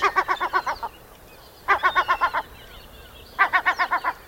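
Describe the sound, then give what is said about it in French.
An Atlantic puffin calls in three bursts of rapid, stuttering nasal notes separated by short pauses, clear over faint background hiss. “Bon, après j'arrête de faire la prof, mais en attendant, je vous laisse avec le flippant petit macareux qui a l'air trop choupi comme ça, mais que j'aimerais pas croiser le matin au réveil.”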